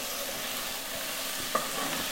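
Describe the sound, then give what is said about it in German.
Garlic sizzles steadily in a pot with a constant bright hiss, while a spoon stirs through it with soft scraping and one short metallic clink. No one speaks. “Weißt du was, wenn es jetzt so heiß so wird, dass es ansetzt, dann, dann gehen wir jetzt mal die Brühe dazu und schalten so.”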